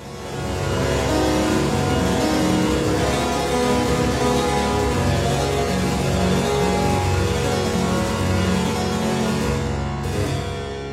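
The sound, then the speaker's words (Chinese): Bright harpsichord music plays steadily throughout, a dense flurry of plucked, metallic notes with rich overtones at an even, fairly loud level, and no voices over it. “你听到的这个背景音乐就是大键琴的声音。”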